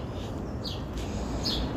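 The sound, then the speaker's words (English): Two short, high bird chirps ring out about a second apart among trees outdoors on a hot day, over a steady rumble of outdoor background noise with no one talking. “And the trees, the birds, I know you're hearing the birds right now.”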